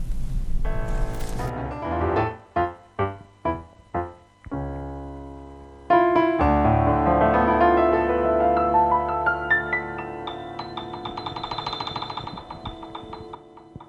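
A tango song's instrumental opening: a run of sharp, rhythmic staccato chords, then a swelling sustained passage with a rising melody, loud, with no singing yet.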